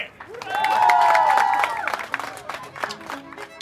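A short round of applause from a small group, opening with a loud, drawn-out whoop before scattered clapping continues for a few seconds, with voices cheering over it.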